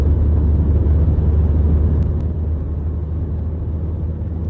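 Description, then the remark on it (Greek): A steady, loud rumble of a convoy of cars with Croatian licence plates driving past one behind the other, a continuous stream of engine and tyre noise with no clear gaps, easing slightly partway through. “Όλα αυτά τα αυτοκίνητα που βλέπει είναι με κορατικέ πινακίδε. Όλα. Το ένα πίσω από το άλλο.”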